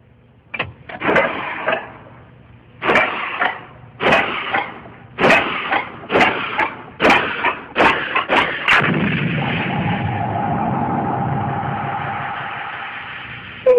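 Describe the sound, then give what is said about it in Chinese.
A single-cylinder model steam engine, just adjusted and repaired by Watt, is run: it chugs in sharp, loud puffs that gradually quicken, then settles into a steady hissing whir with a faint tonal hum, without any talking. “嗯，是主机本身还有缺点，只有一个气缸，一会儿冷一会儿热的，所以才会坏。”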